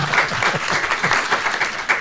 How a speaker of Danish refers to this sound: tusind tak til alle dem, der mødte op. ja, I må gerne klappe